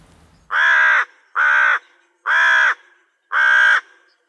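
carrion crow cawing

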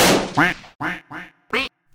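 duck quacking

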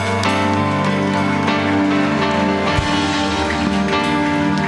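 audience applause

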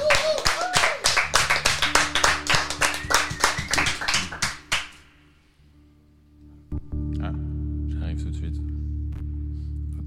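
studio audience clapping

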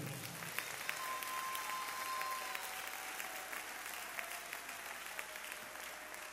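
loud audience applause

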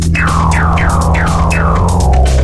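music track played

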